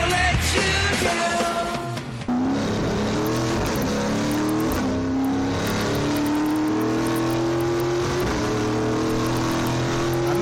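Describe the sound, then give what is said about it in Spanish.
The 500-horsepower engine of a Supercopa GTM race car, paired with a pneumatic sequential transmission, roars steadily on a lap at the Autódromo Ecocentro de Querétaro, its pitch climbing in rising sweeps as it revs and accelerates, with a brief dip early on before the harsh, continuous drone resumes. No one speaks. “lo que están escuchando aquí de fondo es el motor del GTM de Supercopa.”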